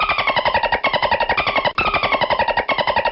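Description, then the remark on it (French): The voice effect of the dolphin Flipper in the TV series: rapid, rattling chatter of clicky squeaks in a steady fast stutter, with a couple of brief breaks, loud and alone with no talking. “La voix de Flipper dans la série, c'était ça.”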